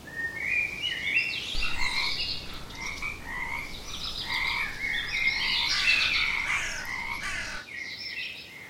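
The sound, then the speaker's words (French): A dense chorus of frogs croaking continuously around a tree in a forest, many overlapping calls forming a steady, busy texture at moderate volume throughout, with no voices present. “Grenouilles, corneilles ou criquets célébraient en chant polyphonique l'admirable grand sage de la forêt.”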